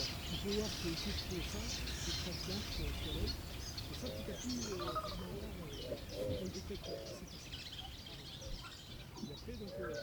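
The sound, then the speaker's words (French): A cirl bunting, a yellow bird with a large black face mask, repeats dry, rattling 'zizi zizi' trills steadily, mixed with other birdsong and low cooing doves, with soft voices murmuring in the background. “J'ai vu un bruit en zizi”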